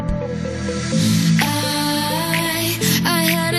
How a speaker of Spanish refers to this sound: vamos con una de las canciones